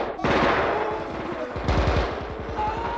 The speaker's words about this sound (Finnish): Mutta antakaa konekiväärin aloittaa. Antakaa kiväärin niin minäkin. Pistoolilla ei ulotu. Levy pyörimään, pojat.